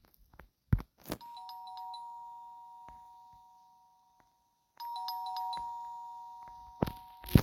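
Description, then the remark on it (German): A doorbell chimes twice, each ring a sustained electronic tone that lingers and fades, separated by a quiet pause, with a few sharp knocks or thumps and no talking. “Was klingelt es?”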